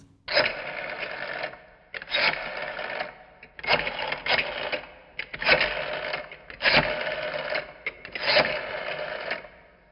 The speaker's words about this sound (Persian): سالار به سمت تلفن رفت آقا این موقع شب چی چی کاره؟ شروع به شماره گیری کرد